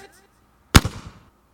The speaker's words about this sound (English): Yeah, that, that robot just collapsed and self destructed in the most pathetic way. It was a really tiny explosion. Can you hear it?